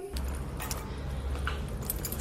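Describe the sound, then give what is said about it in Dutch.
Keys jangle and clink as they are picked up, a few bright metallic rattles over a low steady background hum, with no one speaking. “Sleutels mee.”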